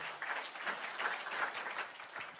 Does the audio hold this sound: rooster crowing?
no